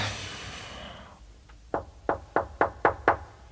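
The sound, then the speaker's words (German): Several firm knocks on a professor's office door, six raps in a steady rhythm, following a brief soft rustle or breath. Clear, with no talking. “Du solltest einfach klopfen,”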